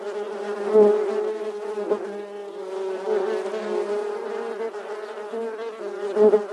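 A dense, continuous hum of many bees buzzing, a steady droning swarm with slight swells in loudness and no voices.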